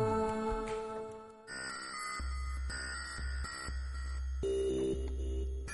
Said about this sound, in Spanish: Yo soy la estrella del tema hoy, con mi organillo. Vais a flipar todos. Eh, ¿Podrías hacer una demostración? A ver cómo suena.